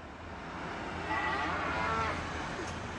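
A cow lets out one drawn-out moo in the middle, lasting about a second, set against a steady, noisy outdoor background with no voices.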